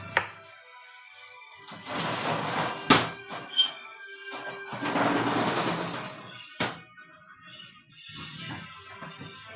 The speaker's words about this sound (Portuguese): Vou abrir a janela.